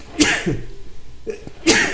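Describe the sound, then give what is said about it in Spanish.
Two loud sneezes about a second and a half apart, each a sharp explosive burst with a quick intake of breath before it; no talking. “Salud.”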